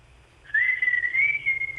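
An actress answers a telephone call by whistling a single sustained note through a thin, band-limited telephone line, starting after a brief quiet moment and gently rising in pitch before holding steady. No one speaks.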